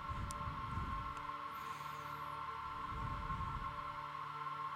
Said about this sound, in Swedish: Håller det på så här i fyra minuter nu eller? Med sån där ja. väsintro. Väs, ja, ja. vässynt kallas det här.